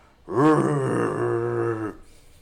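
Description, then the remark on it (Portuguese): Large creatures running toward someone give a single loud, drawn-out bellow, low and rough like an angry bull, rising sharply and holding for nearly two seconds before cutting off into quiet. “aqueles bichos grandes correndo em sua direção, fazendo um barulho parecido com o de touros bravos.”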